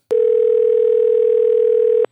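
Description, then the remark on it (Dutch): A steady, loud telephone line tone as a phone call connects holds at one pitch for about two seconds, starting and stopping abruptly with a click at each end, with nothing else around it. “En als alles goed gaat, hebben we hem nu aan de telefoon.”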